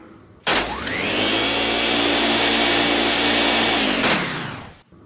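A vacuum-like suction whir spins up sharply, holds a loud, steady roar with a droning motor hum for several seconds, then winds down and cuts off. No one speaks.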